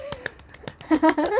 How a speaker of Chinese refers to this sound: 掌声鼓励鼓励。